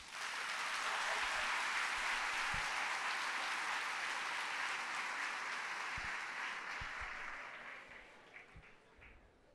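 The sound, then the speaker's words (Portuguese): An audience at a sermon claps steadily to applaud Jesus, a dense, sustained wash of applause that stays loud for most of the stretch before thinning and fading out near the end. “Aplaude Jesus.”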